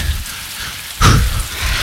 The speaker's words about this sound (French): Au bout d'un moment, ça devient même agréable, sentir la pluie. Ouais, bah là, tu vois, je la sens bien la pluie. Je commence à être vraiment mouillé.